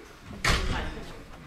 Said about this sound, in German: Mach mal die Tür. Mach mal die Tür.